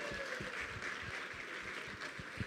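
round of applause

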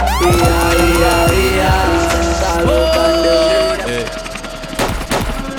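gunshot sound effects

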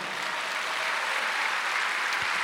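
audience applauding

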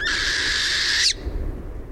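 northern hawk owl call

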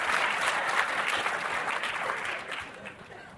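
audience applause

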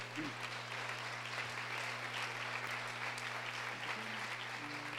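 applause

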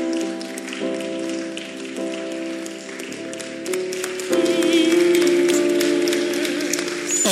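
audience clapping hands

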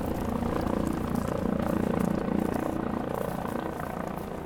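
police helicopter flying overhead

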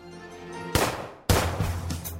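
gunfire

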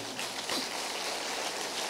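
audience applause

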